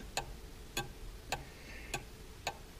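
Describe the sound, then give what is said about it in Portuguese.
A clock ticks steadily, five crisp clicks spaced about half a second apart, fairly quiet against a faint background hiss, with no voices. “Alguns até mesmo poderiam dizer o tirano relógio.”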